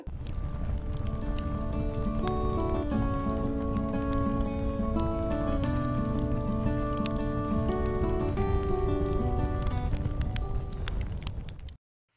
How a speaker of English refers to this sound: Do I hear a campfire? Do I hear a campfire tune?